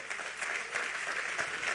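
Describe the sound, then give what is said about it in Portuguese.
An audience at a sermon applauds Jesus steadily, a dense wash of many hands clapping at a moderate, even loudness with no voices standing out. “Aplauda ele porque ele é digno.”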